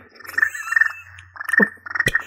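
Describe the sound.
A voice imitates an angry cricket with harsh, rapid trilling chirps in several bursts, loud, with short breaks between them.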